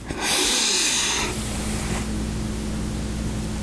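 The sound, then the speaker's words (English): A long, loud, exaggerated breath: a harsh, airy rush that peaks early, then fades into a softer, steady exhale with a low, hollow rumble, no talking. “it's gonna be an ASMR breathing video from here on out.”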